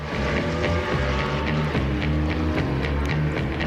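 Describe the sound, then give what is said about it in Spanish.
Loud, continuous engine roaring blended with a film's opening-credits theme music, a steady droning rumble under shifting tones and regular percussive hits, dense throughout with no pauses. “Tema que mezcla música con fuertes rugidos de motor.”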